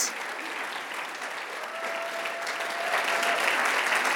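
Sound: church audience applause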